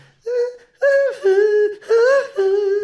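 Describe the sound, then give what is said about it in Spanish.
A voice imitates airy, high sung notes: four sustained tones in short phrases, slightly sliding in pitch, with a breathy hiss of escaping air over them, fairly loud with brief gaps between. “Yo le escucho como cierto escape de aire en algunas notas, sobre todo en esas aguditas”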